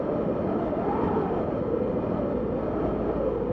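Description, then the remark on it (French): A steady, loud rush of wind blowing without pause, a dense roaring hiss that swells and dips only slightly before stopping abruptly. No voices are heard. “enfin, ça n'a rien à voir de mettre euh, le bruit du vent, mais je sais pas, j'ai imaginé cette scène en fait.”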